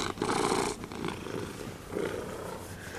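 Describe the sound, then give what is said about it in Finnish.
A cat purrs steadily, a rumbling, rhythmic drone that swells and eases with each breath, fairly loud and alone without any talking. “Niin, rupeat se kehräämään nyt, kun ihana kun vieraita.”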